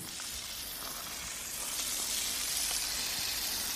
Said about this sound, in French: Après l'entraînement, le cheval Quimper a droit à une douche.